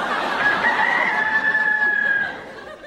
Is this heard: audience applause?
no